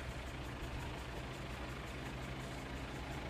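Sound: truck engine idling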